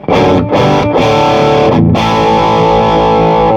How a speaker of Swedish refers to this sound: är inte så mycket slutstegsdist utan det vi lyssnar på är nu är väl förstegsdist bara. Japp. Eh, och eh, jag har ställt gainen på klockan 12. Eh, och det är ett så här, man hör ju direkt att det är så här fast och fint. Eh, ja, bra rock-crunch-ljud.